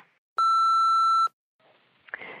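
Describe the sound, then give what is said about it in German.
A single loud, steady beep from the answering machine of Sarah Kuttner and Stefan Niggemeier holds one pitch for about a second, then cuts off, followed by quiet rustling and handling noise. “Dies ist der Anrufbeantworter von Sarah Kuttner und Stefan Niggemeier.”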